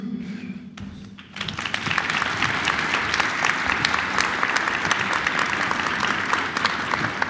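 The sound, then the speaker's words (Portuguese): An audience bursts into loud, sustained applause to welcome a trio, after a quieter opening second, with many dense overlapping claps blending into a steady wash of sound that continues to the end. “que a gente recebesse com uma salva de palmas um trio.”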